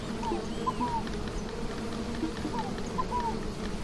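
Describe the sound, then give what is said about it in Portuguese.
A swarm of bees buzzes steadily and densely in an orchard, a continuous low hum with a few faint bird chirps and other background sounds mixed in. “Ah, chega um enxame de abelha também que temos aqui no pomar, né?”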